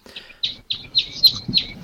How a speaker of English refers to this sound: Hey, can you kill those fucking birds that are interrupting us? those are uh, animatronic. They're not real. We had them in here for effect. They're just effects.